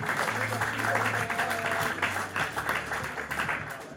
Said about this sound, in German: Der Applaus war definitiv zu klein.